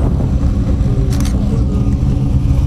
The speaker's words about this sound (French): c'est cette M1 que l'on voit aussi à côté de la Porsche. Vous l'entendez, cette BMW M1 formidable.